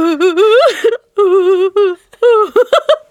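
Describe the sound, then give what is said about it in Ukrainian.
A woman's voice mimics how she cried in the middle seat on a plane: loud wailing sobs, drawn-out quivering cries broken into bursts, ending in short choppy sobbing gasps, prominent with no words. “Я сиділа посередині і тупо ревіла така.”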